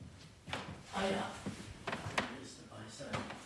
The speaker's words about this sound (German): Zuerst sucht Pater Meinrad in seinen Schubladen nach einem passenden Papier